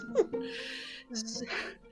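A person cries close by, with short breathy whimpers and shaky sobbing breaths. No clear words come through.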